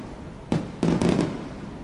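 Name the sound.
fireworks exploding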